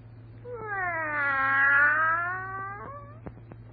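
A cat lets out one long, drawn-out yowl that swells and wavers in pitch before fading, clear over a low steady hum, followed by a few soft clicks.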